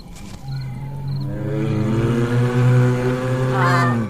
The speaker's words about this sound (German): Was war das? Ein Bär! Jetzt müssen sie ganz vorsichtig sein. Nicht, dass sie den Bären verärgern und er wütend wird.